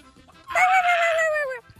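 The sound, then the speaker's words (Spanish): A person imitates a hen with one drawn-out, nasal squawk lasting about a second, loud, with a slight downward slide and no other talk around it. “Verde, verde, gallina cruzada con perro, o ¿qué tranza?”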